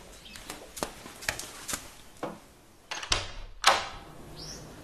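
A bathroom door being opened: a series of sharp clicks and knocks from the handle and latch, then a short high squeak as it swings, with no one speaking.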